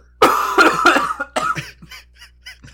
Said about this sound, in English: My voice is getting raspy, so I'm gonna have to hack up a storm.